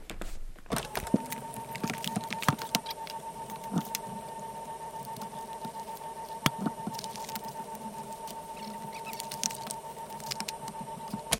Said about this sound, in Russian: Приступаем к распаковке самой мощной из когда-либо созданных консолей. Посмотрим, что же внутри этого черного ящика.